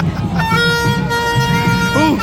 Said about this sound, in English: Oh, someone's got the horn as well. someone, someone with their vuvuzela.